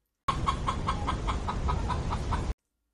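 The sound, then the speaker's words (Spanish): A hen clucks in a steady run of short, evenly spaced clucks, about nine in two seconds, clear over a faint, noisy background. “Sucedió que un día llegó una gallina nueva”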